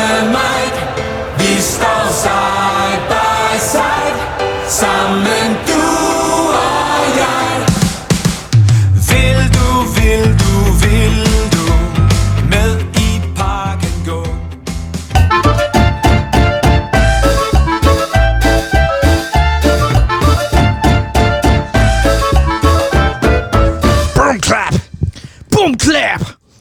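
Loud, dense nu metal music with pounding drums plays continuously for about half a minute, with a brief shift in the middle and a short drop-off right at the end.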